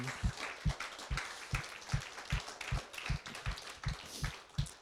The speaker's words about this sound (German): Und vielleicht können wir dem Heiligen Geist und Jesus und dem Vater dafür einen Applaus geben. Dafür danken.